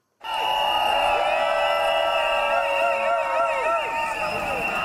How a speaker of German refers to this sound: Es war laut in Davos auf dem Postplatz. Mit Megafon, Triller, Pfeifen und sonstigen Sachen, die man lärmen kann, haben die Protestierenden auf sich aufmerksam gemacht.